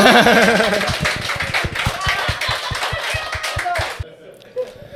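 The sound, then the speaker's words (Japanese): A burst of audience applause with many hands clapping in a brisk, uneven rhythm, loud, with voices murmuring underneath before the clapping stops abruptly near the end; the audience claps to vote for the film Meg the Monster as the winner. “メグザモンスターが勝ったと思った方、拍手。”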